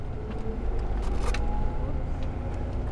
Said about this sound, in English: This is the most remarkable bus ride I've ever taken. Sitting next to me are the survivors of prison camps like Tule Lake and their children and grandchildren.